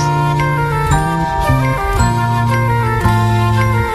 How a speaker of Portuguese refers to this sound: Som para a bruxa dos 71. Tema do Chaves aí, ó. Tema do Chaves.